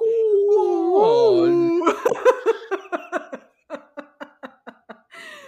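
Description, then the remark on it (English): A voice lets out a long, wavering, pitch-bending moan imitating a whale call for about two seconds, then dissolves into a run of rhythmic laughter bursts that fade toward the end. “It's, it's your it's your weekly ASMR with us talking about whale riders and making whale noises.”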